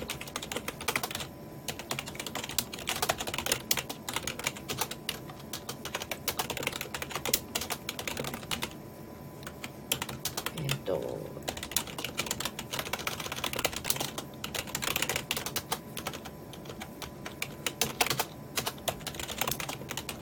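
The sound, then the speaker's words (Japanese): Steady, rapid keyboard typing of a message to LINE official account friends about a live stream, with dense clicking keystrokes and brief pauses, continuing for about twenty seconds with no one speaking. “今ですね私の LINE 公式アカウントのお友達の皆様にもこのライブのことをお伝えしようとあの打とうとしているとこなんですが喋っているので打てないので少々お待ちくださいね。”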